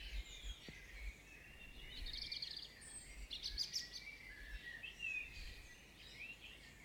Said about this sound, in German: Ich habe nämlich genau nichts gehört, außer Vögelgezwitscher.